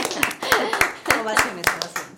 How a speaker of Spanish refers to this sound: Yo también me aplaudo.